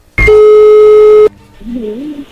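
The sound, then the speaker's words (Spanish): A loud, steady electronic telephone tone holds for about a second as a placed call goes through, then cuts off abruptly, followed by the faint start of a voice on the line. “A ver, ya entró ahí la llamada, no haga ruido.”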